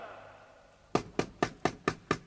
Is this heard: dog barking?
no